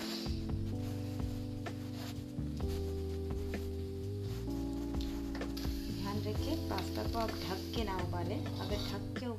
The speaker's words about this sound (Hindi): तो उसको ढकने की कोई ज़रूरत नहीं है बस पास्ता जब उबल रही है तो एक बार बीच बीच में हिला के उसे देखते रहिए